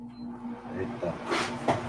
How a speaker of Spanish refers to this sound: Sí, sí, sí, dejó su marca sin duda acá el aire acondicionado.